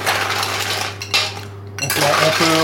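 Ice cubes clatter and rattle into a metal cocktail shaker tin in a couple of bursts, fairly loud, with the tin ringing briefly afterward. No one speaks.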